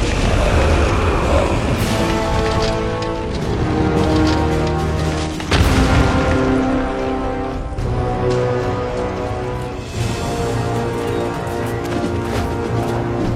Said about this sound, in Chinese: 原本没有搭建的弓弦上，浮现出了一支闪耀的魔法剑。这宛若惊鸿的一剑，贯穿了许多魔物的身体后，在战场中心爆炸开来。